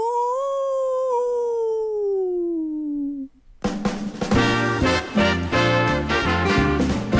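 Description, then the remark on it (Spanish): A single long wolf howl glides slowly downward in pitch for about three seconds, then cuts off. After a brief gap, loud rhythmic music with a steady beat begins. “El hombre lobo. ¡Aú!”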